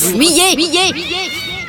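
A cat meows several times in quick succession, short rising-and-falling mews following one another in a steady rhythm, loud, then a longer trailing cry at the end.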